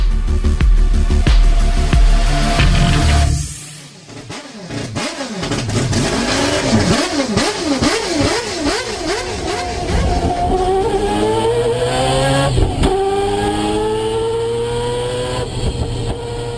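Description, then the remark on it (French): The 2.6-litre four-rotor rotary engine of a Mazda 787B race car roars loudly, drops briefly to a lull, then revs repeatedly in rising and falling bursts before climbing into a sustained high-pitched howl as it accelerates. No voices. “Le son que vous venez d'entendre est celui du moteur rotatif à quatre rotors de 2,6 litres de la voiture de course 787B avec laquelle Mazda a remporté les 24 heures du Mans en 1991.”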